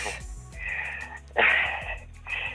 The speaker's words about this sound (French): Vous semblez essoufflé, vous, avez euh, couru Oui, non. Euh, en fait, euh, je suis très très fatiguée en ce moment. Alors, les petits efforts sont compliqués de me lever.